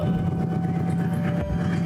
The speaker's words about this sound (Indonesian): itu seperti kereta ya